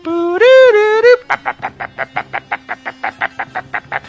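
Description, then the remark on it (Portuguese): An Atari Pac-Man level-start jingle, played as Pac-Man appears when a level begins: a loud, buzzy warbling tone that bends upward, then a steady run of about a dozen quick, evenly spaced electronic blips, with no voices. “Ele nascia, quando eu começava a fase.”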